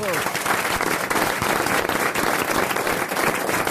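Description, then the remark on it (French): A crowd breaks into loud, sustained applause for Marc-Antoine Lebray, dense clapping filling the whole stretch evenly, with a brief voice audible at the very start beneath it. “Vous pouvez applaudir Marc-Antoine Lebray.”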